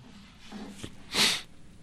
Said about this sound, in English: Bless you. Bless you, my son.